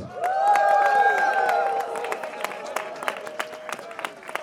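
A crowd applauds with scattered, irregular claps, opening with loud sustained cheering and whooping that fades after a couple of seconds, leaving thinner clapping.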